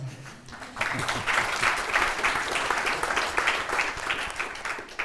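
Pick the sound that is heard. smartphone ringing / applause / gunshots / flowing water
applause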